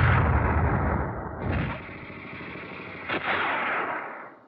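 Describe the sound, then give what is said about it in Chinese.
Rapid, rattling bursts of machine gun fire in the fields of the east ridge, where guerrillas have been spotted by Japanese soldiers, loud and continuous with a dense crackle, a brief lull, then a sharp crack before the firing surges again. No voices are heard. “主任，东岭地里响了一通，机关枪又响起来， 是玉兰他们叫鬼子发现了。”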